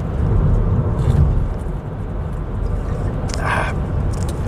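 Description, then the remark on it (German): A couple of short, wet slurping sips of water, one brief and one slightly longer, over a steady low rumbling background with no talking. “Ich muss mich mal kurz entschuldigen, falls es jetzt knistern sollte und gleich schlürfen sollte. Mein Mund ist so trocken, ich brauche mal einen Schluck Wasser.”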